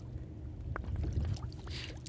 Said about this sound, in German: Mag halt gerade so Sounddesign. Wasser... So äh, Plätsche.